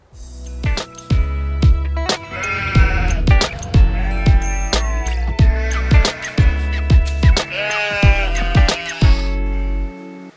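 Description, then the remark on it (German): Sheep, including one named Hannelore, bleat repeatedly and loudly, their wavering cries overlapping across about ten seconds over a steady low rumble, with sharp knocks in between and no talking. “Und unser Schaf Hannelore hat schon viele Jahre mit diesem Hirten erlebt.”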